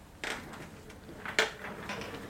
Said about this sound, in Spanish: No han pasado más de 10 minutos cuando oigo el sonido de la silla de tu escritorio deslizándose por el suelo.